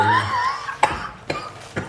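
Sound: cough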